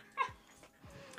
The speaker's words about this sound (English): If you hear the dog in the background, I apologize. She's fine. she wants to be part of the podcast.